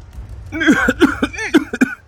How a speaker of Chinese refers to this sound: 看着外面熙熙攘攘的人群，我也试着点燃了手里的香烟。果不其然，一股呛鼻的烟雾立刻便冲进了我的喉咙里，让我剧烈的咳嗽了起来。